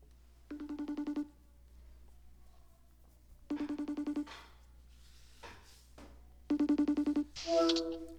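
A phone ringing tone from an outgoing call: three short warbling ring bursts about three seconds apart, fairly loud, with quiet background hum between them and a brief click-like noise at the end.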